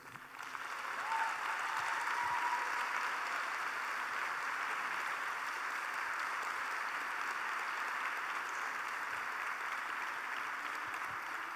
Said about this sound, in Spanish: Por un lado, un fuerte aplauso a nuestros pastores. Lo que hace una iglesia especial no nada más es la presencia de Dios, sino quienes están al frente, ¿no? Así que dale un fuerte, fuerte ese aplauso.